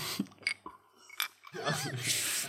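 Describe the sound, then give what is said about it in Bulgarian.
Glasses clink together in a toast, two or three bright, ringing taps, followed by people talking and laughing. “Ай, на здраве, Ай, не сме правили на здраве ефир, нали?”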